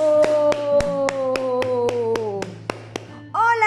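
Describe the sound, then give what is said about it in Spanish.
An audience at a children's race contest claps together to welcome a contestant, the spectacled bear, in a steady, even rhythm, about a dozen sharp claps, over a long, slowly falling voice-like tone, ending with a brief new vocal sound. “Recíbanlo con un fuerte aplauso.”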